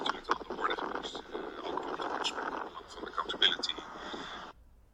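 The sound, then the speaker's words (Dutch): Prime Minister Rutte speaks outdoors, his voice heavily muffled by steady wind buffeting the microphone, a loud, rough rumble running under the talk until it cuts off near the end. “Nou, dat was uh, premier Rutte een beetje gestoord door de wind, zullen we maar zeggen.”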